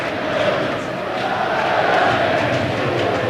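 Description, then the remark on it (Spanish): A large crowd shouts the chant "Rubiales dimisión", demanding Rubiales' resignation, many voices merging into a loud, steady roar that holds without a break for several seconds. “Gritos de Rubiales dimisión.”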